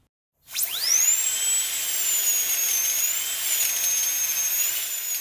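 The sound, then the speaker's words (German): A dentist's drill whines up to a high, steady pitch after a brief silence and keeps running continuously, fairly loud, with slight wavering in tone and no voices. “Es ist ein Bohrer, aber ich hatte noch nie Karies.”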